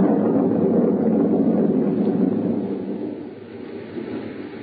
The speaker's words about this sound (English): There was thunder and lightning around me, too